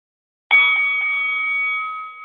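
A single bell strike marking the start of a rap battle round rings out sharply after a moment of silence, its bright metallic tone sustaining steadily and loud for nearly two seconds with no voices.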